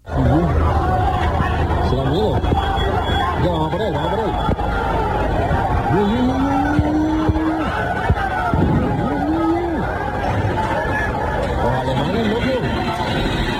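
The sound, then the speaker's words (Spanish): A chaotic street fight in the Puerta de la Carne in central Seville, Spain, with chairs, parasols and tables being thrown, a dense crowd roaring and several voices yelling and shouting over one another, steady loud commotion throughout and a couple of faint knocks buried in the din. “La más llamativa que ha recorrido las redes sociales, se producía en la Puerta de la Carne, en pleno centro, con lanzamiento de sillas, sombrillas y mesas.”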